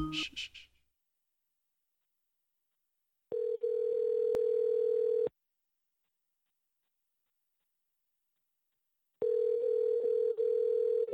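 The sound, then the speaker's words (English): A phone call's ringback tone purrs twice while waiting for pickup, each steady two-second ring separated by a long silent pause, clear. A brief voice sound comes just before the first ring. “Um, all right, so hopefully he picks up.”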